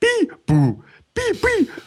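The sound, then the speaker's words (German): A voice mimics sloppy, drunken beatboxing with four short, loud, bursting syllables in an uneven rhythm, each a brief harmonic blurt with gaps between. “immer wenn du besoffen bist, denkst du, du kannst total gut Beatboxen”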